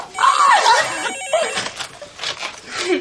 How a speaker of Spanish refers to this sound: El teléfono suena.